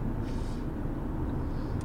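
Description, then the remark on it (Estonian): Steady low rumble of a car's interior while driving, a constant droning road and engine hum that fills the background without pauses, with no one speaking. “aga mis te, mis te muidu poisid, eh, kuidas teil vahepeal läinud on, olete siin eh, autos?”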